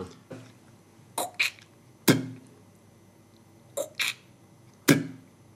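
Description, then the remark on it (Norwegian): A voice mimics air rifle shots three times: each time two quick clicking pops, then a louder, sharp burst that trails off in a breathy hiss, with no talking. “Det var luftgevær for deg, tenker jeg”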